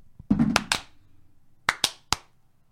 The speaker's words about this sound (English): We need a clap for synchronicity.